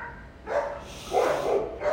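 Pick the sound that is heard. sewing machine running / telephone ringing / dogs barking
dogs barking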